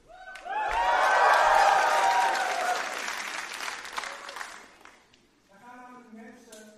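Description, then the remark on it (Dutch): A crowd bursts into loud cheering and clapping for the baptisms taking place that day, the sound swelling quickly, holding steady for several seconds, then fading, followed by a person beginning to talk. “Dus we nog even één keer heel hard juichen voor wat er eigenlijk vandaag gaat gebeuren.”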